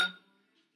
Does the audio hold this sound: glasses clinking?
yes